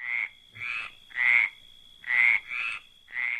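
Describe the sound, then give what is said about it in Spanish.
A frog croaks repeatedly in a steady rhythm, about six loud, raspy calls with short pauses between them, with no one talking. “Un ejemplo son las ranas.”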